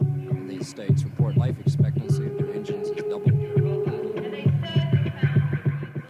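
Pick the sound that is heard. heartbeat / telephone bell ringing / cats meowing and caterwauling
heartbeat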